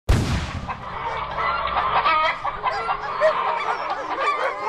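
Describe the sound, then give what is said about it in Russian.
A flock of chickens cluck and squawk in frantic agitation, a dense overlapping racket that keeps up loudly and without pause throughout, with no voices. “Когда стихало паническое кудахтанье кур”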